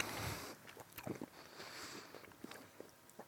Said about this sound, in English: Sorry to any listener that has to listen to me chew now down the podcast.